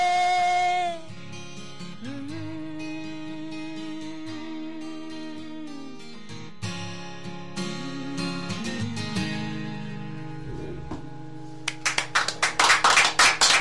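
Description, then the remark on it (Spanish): A sustained song with tonal singing and instruments fades out, and a burst of applause from the concert audience who watched the song live breaks out in the final two seconds, loud, dense and crackling. “Ahí estaban los aplausos de la gente que presenció la canción, una verdadera pasada”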